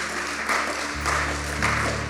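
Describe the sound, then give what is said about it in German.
Steady applause from people at a church service fills the whole clip, a dense wash of clapping without pauses, while low sustained musical notes hum underneath and change pitch a couple of times. “Come on, lasst uns den Leuten nochmal einen Applaus geben.”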